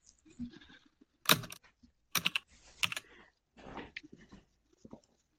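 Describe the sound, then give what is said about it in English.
Loud clacking of someone pounding on a computer keyboard while searching for a stream, delivered in several irregular bursts of sharp key strikes separated by brief pauses, with no talking. “Well, that's not like you're smashing your keyboard.”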